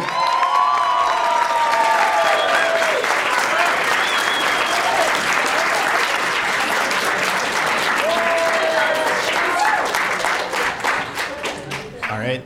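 A live audience in Seattle, Washington, on the count of three, bursts into a loud, sustained round of applause for the hosts, dense clapping with a few whoops and whistles rising over it, lasting about twelve seconds before starting to taper off.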